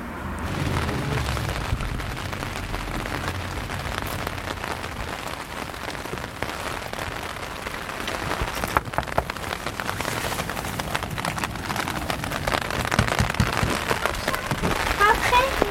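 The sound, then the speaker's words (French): Heavy, stormy rain pours down in a dense, continuous hiss of drops beating on a surface, with sharper spatters and gusty surges growing louder toward the end. “C'est un peu la tempête. Ouais, il fait pas beau et tout.”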